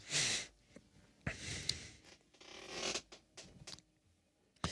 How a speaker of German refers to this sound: Du hast auch einen Knarzstuhl, merke ich gerade. Ja, ich habe auch so einen, so einen, ja, schon leicht äh, gebrauchten Stuhl.